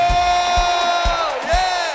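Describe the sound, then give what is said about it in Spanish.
A crowd shouts and cheers for joy in a loud, sustained roar of many voices, with deep thumps landing at a steady pace about twice a second underneath. “Que se oiga ese grito de alegría.”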